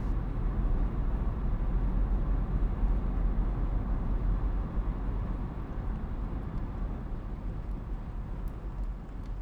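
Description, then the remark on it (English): A steady, continuous low rumble with a broad hiss on top, like tires droning on pavement heard from inside a moving car, holding an even level throughout with no voices. “Nina let the road noise take over.”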